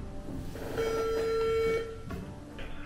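A single steady ringback tone from a phone call placed about buying a car, lasting about a second, sounds over a low background rumble, with no one speaking.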